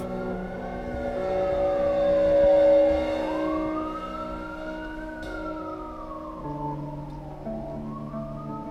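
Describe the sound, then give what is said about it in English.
Industrial city street soundscape: an emergency siren wails in slow rising and falling sweeps over a steady hum of engines and traffic rumble, fairly loud throughout, with no one talking. “As the conversation concerned urban life, we felt it essential to record in a city soundscape that reflected many of the concerns raised in the end of policing.”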